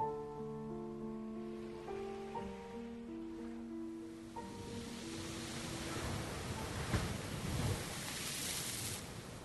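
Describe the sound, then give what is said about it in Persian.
Soft sustained musical tones give way to a steady wash of ocean surf that swells louder toward the end, a continuous rushing ambience with no voices. “برای روی پردازی این قسمت بیاید حالا که حالا هوا خیلی اقیانوس تو رو دریایی شد احساس کنیم که از روی همین قایق خب چشممون رو میبندیم و خودمون رو میسپاریم به آغوش آب”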